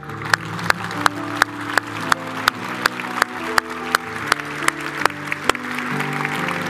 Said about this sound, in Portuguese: 40 anos de casamento. Uma salva de palmas para esse irmão.